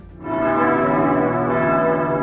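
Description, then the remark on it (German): The deep bells of the Münster cathedral in Bern ring out loud and sustained, their rich overlapping tones swelling in after a brief quiet start and humming steadily with no voices. “Sie gehören seit Jahrhunderten zu Bern, die Glocken von Münster.”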